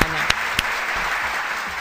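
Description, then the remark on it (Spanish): Steady applause from a group for the zodiac sign Taurus during a horoscope segment, a dense wash of clapping with a couple of sharper individual claps standing out near the start, holding at a constant level throughout. “Pero Tauro, ponete, qué bueno, un aplauso para Tauro que va a cocinar este fin de semana.”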